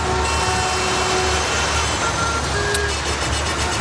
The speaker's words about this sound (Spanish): Hoy, hoy la banda sonora ha sido muy distinta. Centenares de tractores llegados de cualquier punto de España han conseguido entrar en Madrid dejando una imagen única.